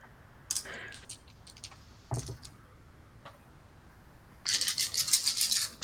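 A few scattered clicks, then a busy clatter of cover dice rattling and tumbling for about a second and a half, with no talking over it.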